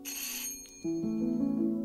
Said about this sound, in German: Es hat geklingelt, aber ich mache nicht auf.